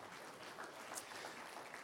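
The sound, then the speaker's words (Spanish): A church audience claps together during a sermon in a steady, dense patter of applause that holds evenly for a couple of seconds, sounding soft, with no voices rising above it. “Un aplauso fuerte, Señor, porque me está mirando muy raro esta mañana.”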